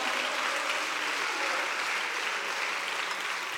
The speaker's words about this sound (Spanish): Bendito sea el Señor, alábale, alábale con tus palmas en esta noche.